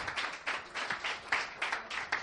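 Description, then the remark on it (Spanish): A church audience applauds for the Lord during a sermon, many hands clapping together in a dense, continuous patter that swells and dips slightly, with no clear speech over it. “¿Cuántos pueden dar un aplauso al Señor?”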